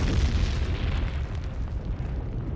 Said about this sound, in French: L'image de l'explosion de la caravelle est impressionnante.